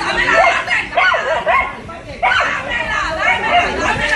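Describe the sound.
A small dog barks furiously in repeated sharp yaps amid a loud, chaotic crowd of overlapping voices, the whole scene busy and noisy, during a confrontation between residents and Electricaribe workers cutting off a house's power in the Hipódromo neighbourhood of Soledad.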